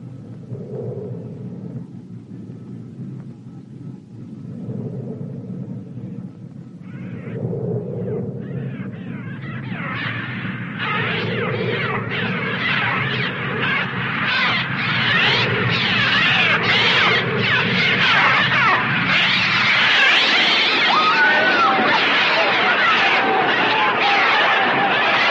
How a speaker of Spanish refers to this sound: pero los sonidos de, los pájaros sí, sí existen. ¿Y podríamos reproducir un ejemplo? Eh, por supuesto. La escena que van a escuchar a continuación pertenece a este largometraje y es una de las escenas de más suspense y más terror.